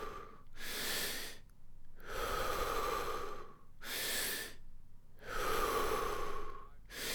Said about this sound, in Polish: Jeszcze dziesięć. Wdech, wydech.